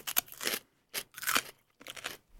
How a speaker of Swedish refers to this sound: Gud, förlåt att det, det värsta jag vet är ju när det smaskar liksom. Alltså den här skulle jag kunna äta upp hela, det är inga problem.